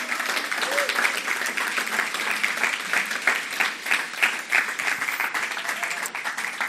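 An audience in a church applauds steadily, a reverberant, dense wash of many hands clapping at once, sustained and fairly loud throughout without pause.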